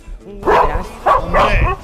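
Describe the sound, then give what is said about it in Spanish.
A dog barks three times in quick succession, loud, with short gaps between the sharp, throaty barks. “¡Perro Pero es muy chulo.”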